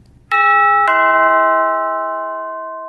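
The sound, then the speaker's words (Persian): The doorbell of a home chimes twice in quick succession at three in the afternoon, a bright two-tone ding-dong that rings out loudly and then slowly fades with a long sustained decay. No voices are present. “ساعت سه بعد ظهر بود که زنگ در خونه را زدن”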